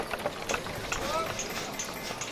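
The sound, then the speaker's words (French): A busy outdoor worksite ambience, with irregular knocks and clattering impacts, possible hoof clops, and indistinct voices murmuring throughout a steady, moderately loud background bustle. “Voilà donc l'ambiance sonore que l'on devait entendre sur le parvis de la cathédrale au moment de sa construction.”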